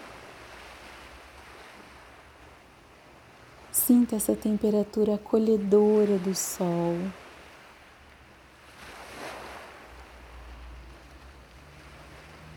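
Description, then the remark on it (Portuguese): Soft, steady wash of ocean waves on a beach, with a gentle swell rising and fading near the end. A calm voice speaks briefly over the surf partway through. “Volte para o barulho calmante das ondas, para o cheiro maravilhoso do mar, da praia.”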